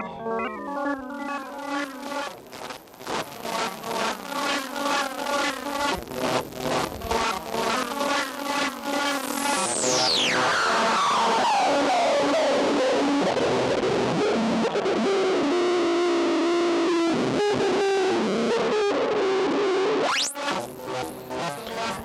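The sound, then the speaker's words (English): A buzzy, harmonically rich tone from a panharmonium fed by a telharmonic, driven through an overdrive distortion pedal, pulsing rapidly at first, then sweeping downward into a sustained gritty drone that cuts off abruptly near the end. No one speaks. “So that's the sound that we are going to overdrive.”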